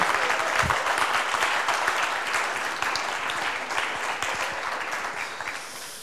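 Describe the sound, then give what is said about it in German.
Loud, sustained applause from a large crowd for the musicians, dense clapping filling the whole stretch at a steady intensity, with a brief low thump near the start. “einen donnernden Applaus für unsere Musiker.”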